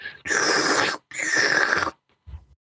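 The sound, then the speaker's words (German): A voice imitates loud slurping through a straw from an empty large fast-food chain drink cup: two long, raspy, airy sucking bursts, followed by a brief low grunt. “großen Getränkebecher von der Fastfood-Kette in der Hand und schlürft die ganze Zeit. Und der, der Becher wird leer und man hört nur so”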